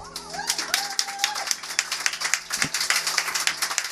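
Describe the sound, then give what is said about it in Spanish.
An audience applauds with dense, steady clapping that lasts the full four seconds at moderate volume, with a short whistle-like tone rising and holding early on. “Chicos, adelante, un aplauso para ellos.”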